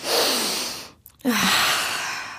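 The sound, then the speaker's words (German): A long, deep breath drawn in through the nose, followed after a brief pause by an equally long, airy exhale. Both are fairly loud, with no talking. “Dieses Bild atmen wir jetzt erstmal ganz tief in uns ein.”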